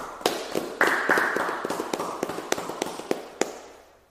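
A short round of clapping: sharp, crisp hand claps in a fairly steady rhythm, about a dozen over four seconds, with no voices and gradually fading toward the end.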